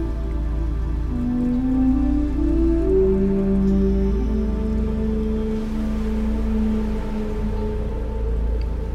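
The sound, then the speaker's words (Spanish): A small stream in a pine and eucalyptus forest trickles and babbles steadily over clear water, a continuous wash of running water that holds an even level throughout, with a soft sustained low tone humming underneath. No one speaks. “Al continuar caminando, encuentras un riachuelo. El agua es transparente y el sonido del agua que escuchas va relajándote más y más.”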